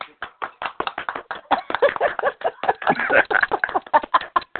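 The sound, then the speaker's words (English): A burst of hand claps, many sharp overlapping claps in a dense, steady patter that runs for several seconds at a fairly loud level, with no voices. “Give her some hand mm. claps because mm, she deserves.”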